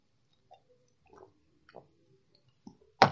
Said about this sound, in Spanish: Y voy a tomar agua, espérenme.